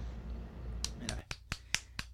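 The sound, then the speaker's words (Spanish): A person applauds another for speaking almost 15 minutes without notes: a short run of about seven crisp hand claps in a steady, fairly quick rhythm, each a sharp bright snap, following a brief stretch of low background noise. “Lo que pienso primero, te estoy aplaudiendo porque genuinamente es impresionante que hayas logrado hablar casi 15 minutos sin notas.”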